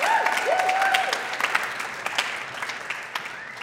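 An audience claps steadily, a dense wash of many hands with scattered sharper individual claps, holding at moderate loudness for a few seconds before thinning slightly toward the end.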